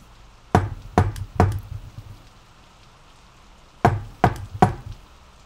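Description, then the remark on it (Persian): Two sets of three firm knocks on a wooden door, evenly spaced, with a pause of a few seconds between the groups over a faint steady background hiss. “با بیحسلگی از جا بلند شد و آرام به سمت درب رفت کسی آنجا نبود”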